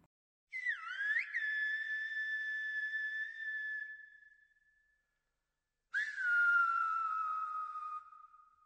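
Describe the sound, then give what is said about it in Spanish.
Two loud, piercing whistled phrases in the Silbo Gomero whistled language of La Gomera in the Canary Islands, used to communicate. Each opens with quick pitch swoops and settles into a long, steady tone, separated by a brief silence, with no talking. “También está La Gomera, donde existe la curiosa tradición de comunicarse mediante silbidos.”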